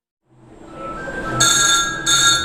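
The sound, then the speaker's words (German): A loud wall-mounted telephone bell rings in two bursts, a sustained metallic clatter, in the press room of a printing house in Göttingen, Germany, over a steady mechanical hum that builds up beforehand. No one speaks. “Telefon, ein durchdringendes Geräusch im Drucksaal des Steidel Verlags in Göttingen. Eine Schelle an der Wand.”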